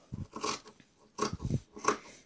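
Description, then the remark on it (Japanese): Scissors snipping through fabric in three separate strokes, each a brief crisp, crunchy rasp with a low thud, spaced roughly half a second apart, as fabric is cut for making clothes during a live stream, with no talking. “まあ、じゃあまずね 切っていきます。”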